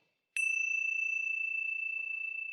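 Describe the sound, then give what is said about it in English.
A Ting Sha bell is struck once, clear, then rings on with a high, pure, shimmering tone that wavers slightly as it slowly fades. No other sounds. “it's the Ting Sha bell.”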